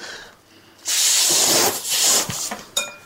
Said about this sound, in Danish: Og nu må det lige få, få boostet nogle flere i ballonger balloner op, så vi kan nå blive klar.